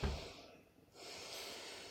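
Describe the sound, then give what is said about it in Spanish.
A long, deep breath drawn in through the nose, a steady airy hiss that eases briefly before swelling and holding strong to the end, with no talking. “O sea, cuando estéis subiendo para arriba, llega un momento que podéis que, pensáis que ahí es vuestro tope, seguís respirando, seguís subiendo.”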